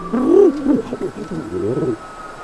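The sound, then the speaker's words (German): A human voice imitates pigeons cooing: a run of throaty, warbling coos rising and falling in pitch, moderately loud, with a faint steady hum underneath. “Zwei Tauben schauten sich verwundert an.”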